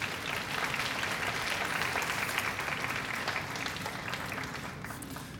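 Steady applause from an audience fills the whole stretch, a dense wash of many hands clapping at even volume, fading slightly near the end with no voices over it.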